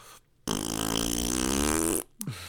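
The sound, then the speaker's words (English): A voice imitates a fart, as the character Jamie Tartt does in the show Ted Lasso, with a long, buzzing, sputtering blow of about a second and a half, loud, followed by a short breathy tail. “that was fart, fart, fart, fart, fart, fart, fart”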